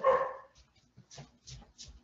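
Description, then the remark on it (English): A dog named Loki barks, one full bark followed by a quick run of three softer, shorter barks, with no talking. “My dog is barking.”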